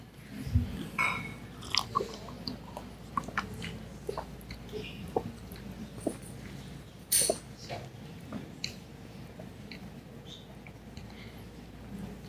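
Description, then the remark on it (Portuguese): Someone drinking water: soft gulps and swallowing sounds with scattered small clicks and a brief clink, fairly quiet, with no talking throughout. “Fique tranquilo aí, dá tempo para eu beber água aqui.”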